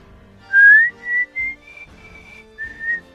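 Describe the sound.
A man whistles a short, wavering tune of several sustained notes as he walks off, with the soft low thuds of his heeled footsteps underneath at irregular intervals and no talking.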